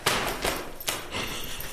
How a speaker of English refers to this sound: Yeah, so I'm just going to knock them on the table to get them loose, but remember, none of them can sting, so it's okay.